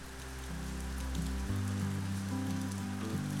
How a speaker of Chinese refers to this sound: 顶棚是帐篷，所以雨水打在屋顶的声音特别特别的响亮。在半梦半醒之间呢，我甚至一度以为雨水要穿过屋顶而来。但虽然说声音十分的响亮，可是，在寂静的万亩茶园当中，这场雨似乎只是为我而下